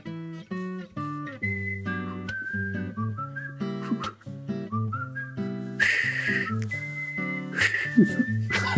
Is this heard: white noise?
no